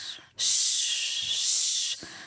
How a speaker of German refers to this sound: Das ist S, Sch oder W oder F oder auch M, wobei da schon ein Ton dabei ist. Wir machen jetzt einfach Sch, Sch, Sch und schauen, dass man gleich mit dem Zwerchfell atmen, arbeiten.